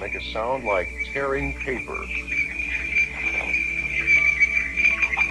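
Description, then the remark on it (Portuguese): Sonified Voyager space-probe recording of electromagnetic waves from the solar system: rapid sweeping whistles and chirps over a steady high-pitched tone and a bed of crackling static, continuous and eerie with no voices. “São evidências de ondas eletromagnéticas do sistema solar.”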